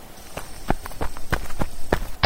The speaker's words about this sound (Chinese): 台北街头显得格外安静，一阵脚步声，急促的从对街传来。